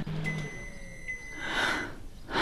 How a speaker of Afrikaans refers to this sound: Ek klokkie. Vir my klink dit soos 'n gong.